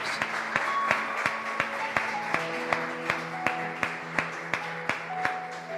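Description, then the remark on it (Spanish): An audience applauds Jesus during worship, a dense wash of clapping with sharp claps falling into a steady beat, while sustained musical tones play underneath. “Ponle ese fuerte aplauso a Jesús.”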